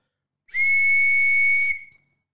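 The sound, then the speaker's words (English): A single loud, shrill blast on a toy conductor's whistle that came with a children's-size conductor hat, holding one steady high pitch for about a second, breathy, then cutting off sharply into silence. “And then it came with a whistle.”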